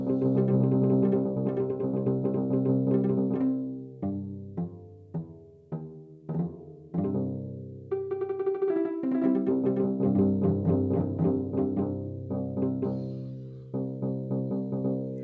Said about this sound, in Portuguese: vou botar alguns aqui, por exemplo, dá para você ouvir, experimentar sons de bateria. Sons de osciladores, Dá para fazer também som de cordas.